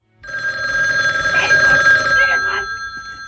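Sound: telephone ringing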